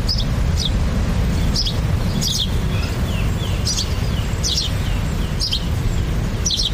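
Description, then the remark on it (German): Original birdsong recorded in front of Andrea's balcony: birds chirp in short, repeated bursts, mixed with a steady, broad rush of ocean waves, the surf rumbling continuously underneath while the calls ring out at moderate loudness. “Das ist das Original-Vogelzwitschern vor Andreas Balkon im Mix mit Meeresrauschen.”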